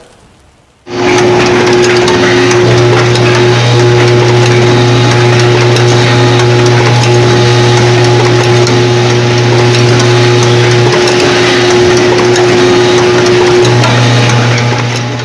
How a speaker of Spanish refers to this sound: Esto que acabamos de escuchar es una máquina automática en una maquila de Tijuana